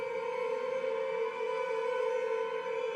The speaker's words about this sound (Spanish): Y sientan la estática Escúchenla. Hagan el esfuerzo.